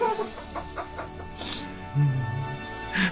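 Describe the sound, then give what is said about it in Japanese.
A person vocally imitates a Tosa dog mating with comedian Ide Rakkyo, making a run of short, rhythmic, clucking grunts followed by a longer strained, nasal groan, fairly loud. “い、いでらっきょと交尾をする土佐犬のものまねだって。”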